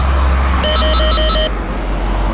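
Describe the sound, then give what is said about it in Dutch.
An electronic doorbell at an embassy door rings with a quick run of about five short, high, tonal beeps lasting roughly a second, over a steady low rumble of traffic. “Nee, de deur is dicht. Misschien als we aanbellen.”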